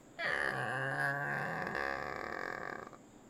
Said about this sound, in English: Uh, like no creaky doors. Open my door and creak it.